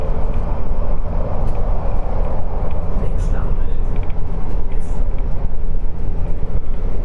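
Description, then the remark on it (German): Inside a moving, nearly empty train carriage with only one other passenger: a steady, loud low rumble and clatter of the wheels on the track continues throughout, with a faint hiss of air above it. “Ich sitze hier also in einem kompletten Zug. Da ist noch ein einziger anderer Fahrgast drin.”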